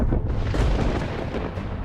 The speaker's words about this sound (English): there was thunder.